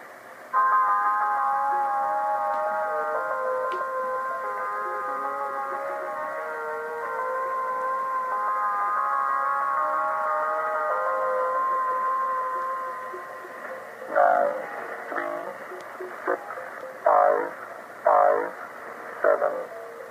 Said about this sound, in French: il explique sa trouvaille et il met en fait une vidéo avec où on le voit qui passe le vinyle sur sa platine.